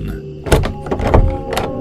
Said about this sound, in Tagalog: Bago pa makatayo ang babae, ay narinig niya ang kanilang doorknob na pilit na binubuksan.